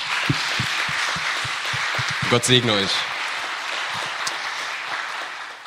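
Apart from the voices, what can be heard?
audience applause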